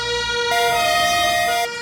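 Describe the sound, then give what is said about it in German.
An emergency vehicle siren blares loudly, switching between two pitches in a hi-lo pattern, with a low engine rumble underneath and no voices. “Schaltet diese Sirenen aus.”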